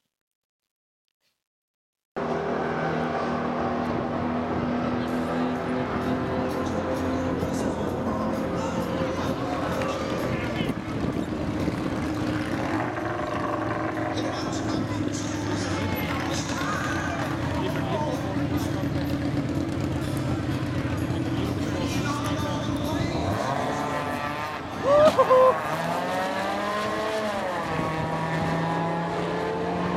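A car engine roars steadily after a moment of silence, its droning hum holding for a long stretch before a sharp rev surges and drops near the end.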